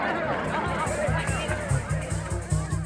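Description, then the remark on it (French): A large crowd clamours in a steady, dense roar of overlapping voices, with a low, rhythmic thrumming pulsing underneath throughout. The crowd is at an aerodrome air show in New York, cheering as aviator Miss Coleman finishes her aerobatic display with a figure eight. “la foule ne s'y trompe pas. Les clameurs retentissent dans tout l'aérodrome.”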